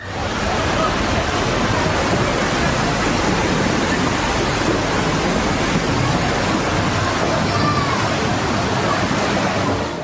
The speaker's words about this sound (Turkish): Depremin hemen sonrası felaketin Seferihisar Sıvacık'taki yansıması tsunami oluştu. Tekneler bağlı bulundukları iskelelerden ayrıldı, denize sürüklendi, sokaklar sular altında kaldı.